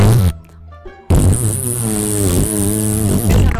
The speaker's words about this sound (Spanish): Puedes dejar de tirarte pedos